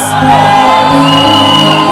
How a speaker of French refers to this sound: Désormais, quand tu entends qu'il y a Fire Sunday, ça doit t'exciter. Parce que tu vas entendre des cris de réjouissance.